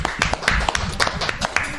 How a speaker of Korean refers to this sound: KT가 정규 시즌 어, 우승을 차지했습니다. 어우. 박수 한번 주고 가야 되는 거 아닙니까?